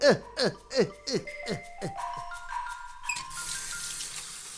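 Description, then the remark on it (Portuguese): A quick run of squeaky, chirping bursts and faint tones gives way to a steady rush of tap water pouring into a sink as hands are washed, with no one speaking. “Antes de comer ou de mexer na comida, temos que lavar as mãos.”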